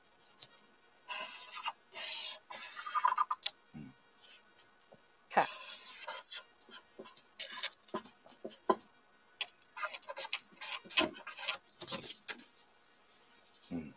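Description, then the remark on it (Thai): A pen scratching across paper while drawing a diagram to explain city flood drainage, with irregular bursts of short ticks and longer scraping strokes, fairly soft, broken by brief pauses and no talking. “เราวาดแผนผังเลย นะครับ”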